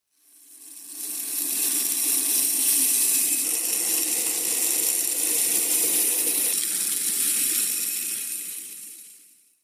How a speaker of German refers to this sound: Na, was haben wir denn da gehört? das ist das Geräusch von Weizen, der in ein Silo gekippt wird.